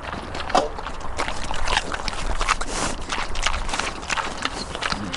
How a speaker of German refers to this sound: Also ich äh, gebe gerade den Schweinen Apfelstücke, weil ja, die mögen das gerne, wenn man denen irgendwie Äpfel oder auch Möhren gibt und die schmatzen, die schmatzen immer sehr dolle.